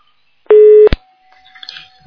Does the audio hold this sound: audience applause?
no